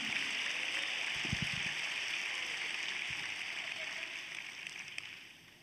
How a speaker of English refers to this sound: Clap your hands. Praise God for it.